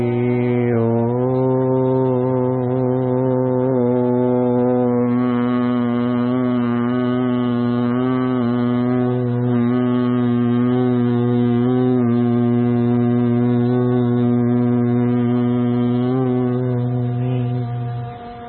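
A single sustained humming Om chant of Omkar Gunjan meditation, held steadily for the whole stretch, a deep resonant voiced drone with rich overtones, fairly loud, with no other sounds.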